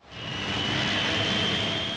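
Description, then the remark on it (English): A helicopter arrives at a quarry, swelling in quickly and holding at a loud, steady roar, with a high engine whine running through the dense rushing noise. It is dominant, and no one speaks. “and a helicopter arrives.”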